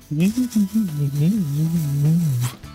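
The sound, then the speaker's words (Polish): A voice imitates how an underwater recording sounded with the high frequencies gone: a muffled, steady low hum with wavering pitch, dull and lacking any crisp treble, lasting a few seconds. “Pod wodą był taki, pod wodą był taki efekt, że ta góra w ogóle zniknęła.”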